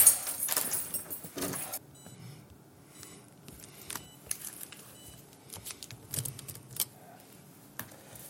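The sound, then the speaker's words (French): Keys jangle and clink in irregular bursts, with a louder rattle at the start and scattered metallic clicks afterward as someone sorts through a ring to find the right key. “Vous trouvez la bonne clé.”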